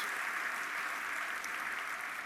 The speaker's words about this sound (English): Yeah, you can clap for that, for, for, for those in the Philippines.